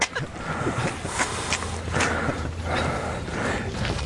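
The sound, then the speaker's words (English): Heavy, rhythmic, labored breathing of a man walking uphill, with repeated gasping bursts over steady footsteps and a constant background rumble. “Listen to … breathing. Listen to this.”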